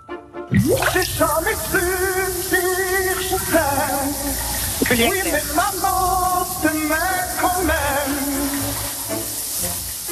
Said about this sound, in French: qui chante sous la douche.